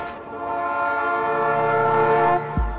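A loud, sustained train horn blares in one steady chord for nearly three seconds over a low rumble of passing railroad cars, then cuts off abruptly with a deep thud.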